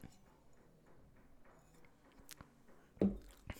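Someone takes a sip of Elijah Craig Barrel Proof whiskey from a bottle: a few soft glass clicks and small mouth noises, then a brief, louder slurping sip near the end, with no talking.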